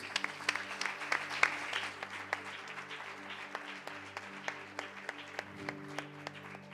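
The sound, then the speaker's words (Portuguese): A large church audience claps steadily and continuously for several seconds after a prayer, applauding Jesus, with dense overlapping handclaps and a few sharper individual claps, over a soft sustained low musical drone. “Aplauda Jesus, queridos.”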